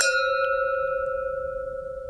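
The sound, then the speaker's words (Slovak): Wine glasses clink once in a toast, leaving a clear, bright ringing tone that lingers and slowly fades over a couple of seconds. No one speaks. “musíme si cinknúť, mne sa strašne páči, že ako to cinka.”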